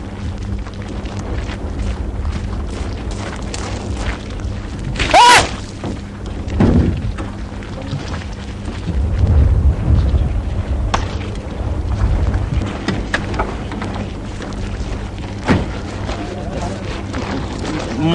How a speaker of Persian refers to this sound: این دیگه چی بود؟ نه ترس توپخونه خودیه پس از همین فاصله هم میتونه بزنه؟ این که چیزی نیست تا چهار یا پنج کیلومتر میزنن ما که همش دو کیلومتر با خط فاصله داریم